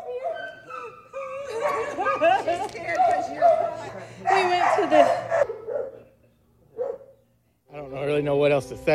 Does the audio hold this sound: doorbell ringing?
no